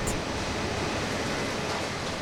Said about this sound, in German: Andererseits gibt es das sogenannte Shuttle, ein vollautomatisches Lagersystem, das von hunderten Robotern geführt wird, wo sicher auch viel Strom fressen.